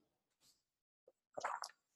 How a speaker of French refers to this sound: bon, excusez-moi, j'ai pris une petite gorgée d'eau.